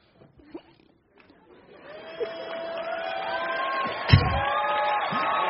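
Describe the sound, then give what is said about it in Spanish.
An audience breaks into applause mixed with cheers, whoops and laughter, swelling after a quiet start and holding steady and loud, with one sharp thump partway through. “Un aplauso a todos.”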